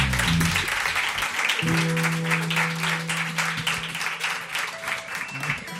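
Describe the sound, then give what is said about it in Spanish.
An audience at a Cadena 100 live music session applauds a band continuously for about six seconds, dense and steady clapping at a fairly loud level, with a low sustained hum running underneath through the middle stretch. “Un aplauso para ellos.”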